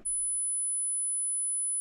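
A steady 10,000 hertz test tone: a thin, piercing high-pitched whine that holds at one constant pitch and level for about two seconds, with nothing else around it.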